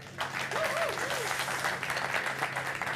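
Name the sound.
big applause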